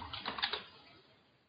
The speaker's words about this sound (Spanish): No sé si se oye mi teclado mientras busco.